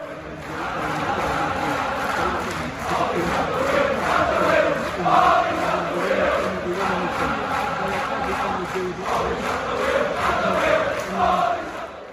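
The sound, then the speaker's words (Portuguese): A large crowd of Liverpool football fans at Old Trafford chants a song made up about Solskjaer in unison, a loud, sustained, rhythmic mass of voices with rising and falling melodic phrases repeating throughout. “a torcida do Liverpool inventou uma musiquinha pro Solskjaer.”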